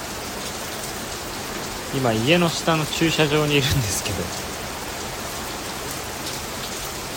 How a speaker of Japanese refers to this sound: ちょっと移動しようと思ってたんですけどまさかのめちゃくちゃ雨降ってきて